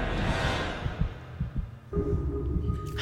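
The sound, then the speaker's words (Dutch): A heavy, low thumping heartbeat sound effect pulses steadily and loudly in the foreground, with a faint hum underneath and no one speaking. “U voelde uw hart ook bonzen, hè? Ja, ik zag het. Het is nog altijd bezig.”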